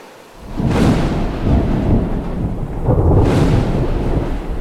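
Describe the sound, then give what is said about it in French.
A terrible midday thunderstorm with deep, rolling thunder that swells in two long rumbling waves over steady rain noise, loud, with no voices. “Mais à la mi-journée, un orage effroyable le surprend et il revient en courant vers sa hutte.”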